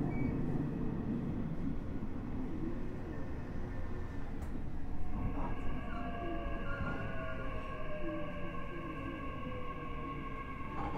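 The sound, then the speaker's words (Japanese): A Nishitetsu 9000 series express train bound for Hanabatake runs between Yakuin and Futsukaichi with a steady low rumble, overlaid by sustained whining motor tones that shift and glide in pitch partway through, continuous and fairly loud with no talking. “西鉄 9000系 薬院から二日市まで”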